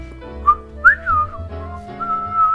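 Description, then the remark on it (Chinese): A tall, thin man whistles a short tune as he walks, carrying two rabbits. Clear high notes slide up and down in a lilting melody, with held tones near the end and a low steady hum underneath. “那人是个瘦高个儿，一边走一边吹着口哨”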